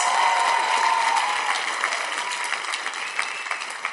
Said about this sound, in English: And um, yes, it's a good place to clap because